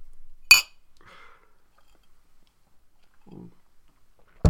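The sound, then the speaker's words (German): Glasses clinking together in a toast, one bright sharp clink near the start and another at the very end, with soft faint rustling and handling noises in between. “ja, dann cheers.”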